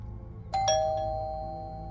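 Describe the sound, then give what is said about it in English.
A doorbell chimes once with a two-tone ding-dong, the bright tones ringing out slowly over a low background hum. “The doorbell sent a zap of adrenaline through Kara's body.”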